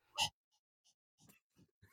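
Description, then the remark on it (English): A person imitates a dog panting: one loud, rough huff followed by several softer, breathy pants at a steady, loose rhythm, with no talking. “they're they stick their tongue out and they pant like,”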